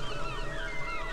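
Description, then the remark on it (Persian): A sustained, wavering chant carries melodic glides over a low steady hum, a morning Islamic call to prayer (adhan) near sunrise, at moderate volume, with no other voices nearby. “آره صدای اذان صبحگاهی میاد”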